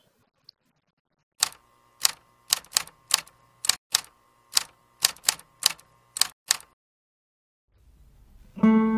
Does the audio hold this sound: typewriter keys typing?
yes